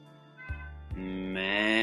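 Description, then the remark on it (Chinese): A sheep bleats in one drawn-out, wavering call that rises in pitch and grows louder toward the end, with no talking; one of a flock that a boy herds up a high mountain each day to graze. “草木，有一个小男孩，每天赶着一群羊到山上去放牧。”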